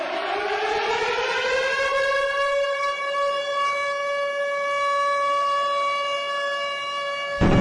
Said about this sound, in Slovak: there were constantly an air alarm. Air alarm means you are in danger. Therefore, I was forced to hide in my home.